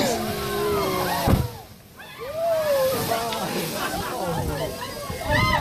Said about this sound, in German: So klingt Whale Watching.